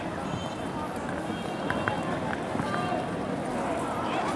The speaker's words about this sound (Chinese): 这一带无疑是非常喧闹的，我等一下会走向城市相对安静的地方。